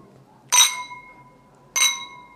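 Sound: wine glasses clinking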